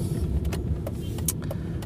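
Steady low rumble of a moving car's interior, with a few brief clicks and rattles scattered over the droning road noise, and no one speaking.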